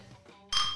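glasses clinking

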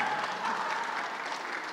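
audience round of applause

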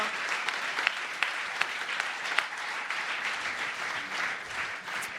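audience applauding

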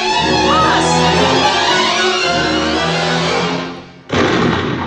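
gunshot

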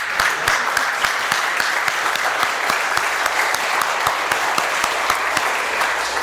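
audience applauding

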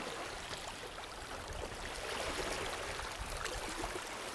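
sea water lapping

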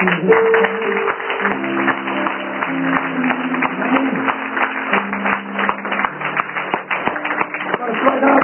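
audience applauding loudly

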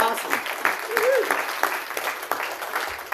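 audience applause

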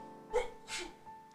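sneeze

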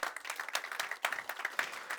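audience applause

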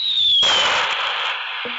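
fireworks sound effect

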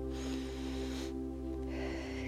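big deep breath

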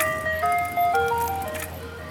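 ice cream truck jingle

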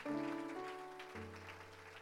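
audience clapping hands

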